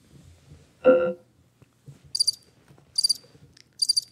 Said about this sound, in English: Crickets?